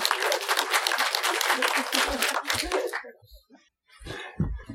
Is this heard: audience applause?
yes